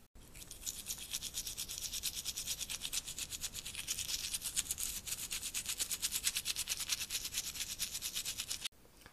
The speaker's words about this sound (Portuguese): E Chapeuzinho fez o leão faminto escovar, escovar e escovar os dentes até deixá-los brilhando.